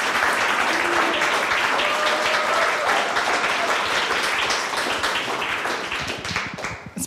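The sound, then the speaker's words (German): A live audience at a show recording applauds steadily, a dense wash of many hands clapping at once, sustained and fairly loud before thinning out and fading near the end. “Herzlich willkommen, Publikum zuerst. Applaus”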